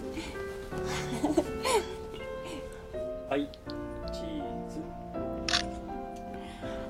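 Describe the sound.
Several sharp camera shutter clicks, spaced a few seconds apart, as a stranger takes a photo of a Japanese couple on their honeymoon trip, over a busy background of murmuring voices, light laughter and steady ambient tones.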